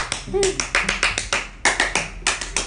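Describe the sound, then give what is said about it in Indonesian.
Brisk, rhythmic hand clapping in the Indonesian Pramuka scout clap pattern, done three times for a birthday: a quick run of sharp claps, a short pause, then another run. Faint voices may be audible underneath. “ulang tahu ini tepuk pramuka tiga kali.”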